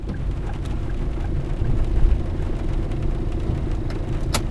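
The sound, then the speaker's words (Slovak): A car engine rumbles low and steady as the car parks in front of an office building in the rain, with faint scattered taps of raindrops and a sharp click near the end; no voices. “zaparkuje auto pred budovou kancelárie a prekľučkuje pomedzi kvapky dažďa.”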